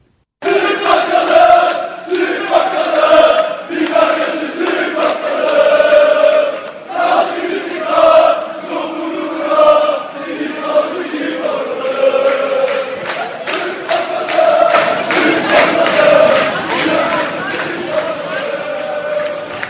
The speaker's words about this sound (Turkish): Bu tezahürat 13 Mayıs günü e, Akaretler'de e, İnönü Stadı'ndan geriye Beşiktaş Meydanı'na doğru yürüyen e, taraftarın e, yaptığı bir tezahürat.